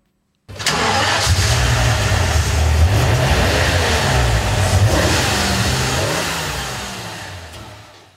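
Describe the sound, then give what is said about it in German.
A BMW M8 E31 V12 car engine cranks and catches, then settles into a loud, steady running rumble with a few throttle blips, with no talking, fading slightly at the end. “Schon allein wegen dem Motorsound, dem wir jetzt mal kurz lauschen.”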